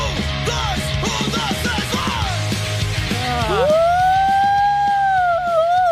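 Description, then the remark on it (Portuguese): After a few seconds of busy, chattering noise, a voice imitates a siren: a loud, sustained wail that swoops up and holds a steady high pitch, wavering slightly until the end. “Eu sou uma sirene.”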